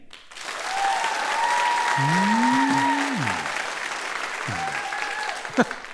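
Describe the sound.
Sustained applause from a live crowd fills the room for several seconds, dense and steady, with cheering and whooping voices rising over the clapping and a brief exclamation near the start.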